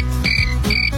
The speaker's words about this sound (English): Where's the cricket sound effect? Okay. I loaded it up. We got to play it.